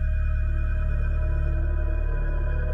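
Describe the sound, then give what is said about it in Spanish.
Several office telephones, each with a different extension, ring at the same time in an overlapping, steady electronic drone of tones that continues without pause, with no voices. “fue bastante raro, ya que todos los teléfonos tienen extensiones diferentes. No hay manera de que suenen todos al mismo tiempo por una sola llamada entrante.”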